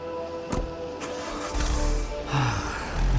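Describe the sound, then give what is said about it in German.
A couple of sharp clicks, then a man's car engine turns over and catches into a steady low rumble that swells briefly as it revs. No one speaks. “Er geht zu seinem Auto.”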